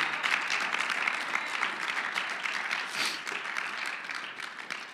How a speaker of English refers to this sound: If this looks like a way you would like to live your life, I think you should clap your hands unto the Lord and say, This is what I want to do.